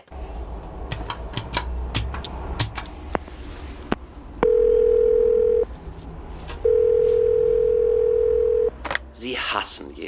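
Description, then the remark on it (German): A call to the Schauspielhaus Graz hotline against hate, a literary telephone booth: the line tone sounds in two long, steady, mid-pitched beeps separated by a pause, preceded by scattered clicks and handling noises, with a low hum underneath. “Graz hat jetzt eine Hotline gegen Hass eröffnet, eine literarische Telefonzelle, die die anrufende Person mit einer literarischen Antwort auf unterschiedliche Formen und Auslöser von Hass verbindet.”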